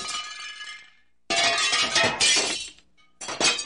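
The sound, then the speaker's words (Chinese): Three loud crashes as a vase and drinking glasses on a table are smashed in anger, the first leaving a bright ringing shimmer that fades, the second a long clattering burst of shards, the third cut short. No voices. “说着，皇后生气的把桌子上的花瓶、玻璃杯全砸碎了。”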